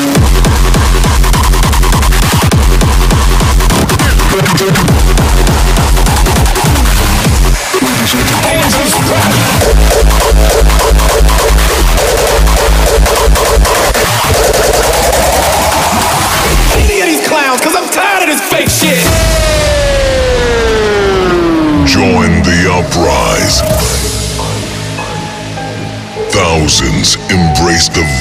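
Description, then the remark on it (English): Loud, dense high-speed hardcore electronic music: rapid pounding beats, distorted noise layers and swooping synth sweeps that dive downward, relentless and chaotic throughout, with possible vocal samples mixed in. “venomous sound of high-speed hardcore.”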